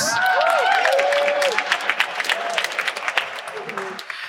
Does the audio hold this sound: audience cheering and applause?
yes